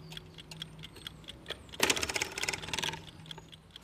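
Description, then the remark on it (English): Rapid mechanical ticking from several clocks at once in a clock shop, including a Francis Drake Falling Ball Clock with a hanging ball. A dense overlapping patter with a louder burst of clicking and whirring near the middle, with no voices. “Oh, by the way, that one, that clock over there, the, the ball, hanging ball.”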